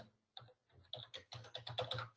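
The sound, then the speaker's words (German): Quick, uneven keystrokes clatter on a computer keyboard as someone types a password to log in with Facebook, a short burst of characters that speeds up toward the end, with no talking. “So, gebe mal hier mein Passwort ein, was ich jetzt nicht laut vorlese und sage, okay, ich als Tiger, Tiger Games will mich da anmelden, klicke auf Login.”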